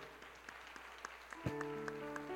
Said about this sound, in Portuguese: Aplauda ao Senhor.